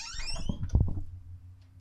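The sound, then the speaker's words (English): A short electronic timer alarm sounds, bright falling tones lasting about half a second, followed by a few dull low thumps over a faint steady hum. “Um, I think is gonna have to give me a timer.”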